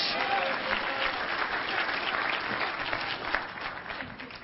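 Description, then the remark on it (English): A church audience claps their hands in praise of the Lord, a dense, sustained wash of applause from many people for several seconds. “Give a Lord a hand clap of praise.”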